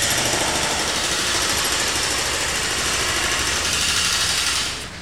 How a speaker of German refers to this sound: Plötzlich spannen sich Absperrbänder über Gehwege. Sandhaufen türmen sich auf, Baumaschinen dröhnen.